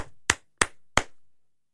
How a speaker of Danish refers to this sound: Det kan vi godt lige loop, så der kommer noget flere klap.